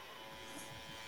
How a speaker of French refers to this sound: je pense que c'est mon ordinateur qui est bruyant en réalité